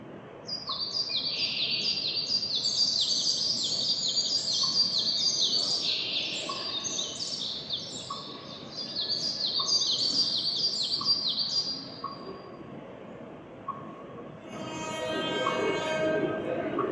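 Birds chirp in quick, high-pitched runs, a busy overlapping chorus over a steady low rumble, with train sounds, in an exhibition hall recreating Taiwan's four mountain ranges with real trees and plants; a pause, then a different scratchy noise takes over near the end.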